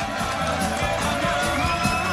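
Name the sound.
applause and cheering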